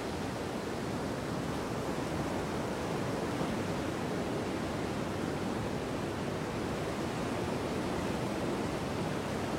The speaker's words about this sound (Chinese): 沙滩上的海浪一下一下的拍打过来，带着大海的味道，淡淡的、潮湿、咸咸的味道。